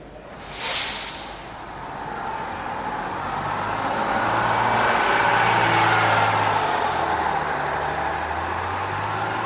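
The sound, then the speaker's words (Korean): A shuttle bus engine runs steadily with a low rumbling drone and broad road noise after a brief hiss near the start, as the bus leaves central Warsaw, crosses a bridge and drives along the Vistula riverbank; no one speaks. “버스는 도심을 벗어나 다리를 건너더니 비스와 강변을 따라 달렸다.”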